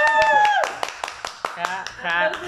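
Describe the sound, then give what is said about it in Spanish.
A few people clap in loose, irregular bursts, sharp claps spaced unevenly across a couple of seconds, while voices talk and laugh over them. “Un aplauso, por favor.”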